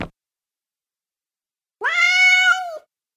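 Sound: cat meowing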